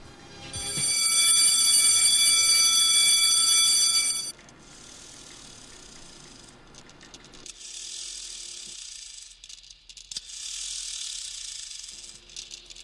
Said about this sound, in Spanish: Sonó el timbre. Lo escuché. ¿No te la esperabas? No, me dejó ahí. Pensé que atrás venía una campana, no sé, algo.